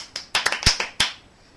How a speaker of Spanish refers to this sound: Aplauso.